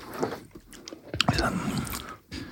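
Wet chewing of food dunked in a so-called extreme sauce, now on the right side of the mouth, with irregular crunchy bites and smacking mouth sounds, fairly quiet, with no talking.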